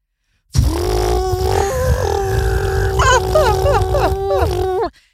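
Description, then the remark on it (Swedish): A person imitates a domestic propeller airplane flying from Luleå to Haparanda with a steady buzzing, droning voice, a rough low rumble beneath wavering tones that rise and dip, sustained for about four and a half seconds. “Då vill jag att du ger mig eh, ditt bästa flygplansljud.”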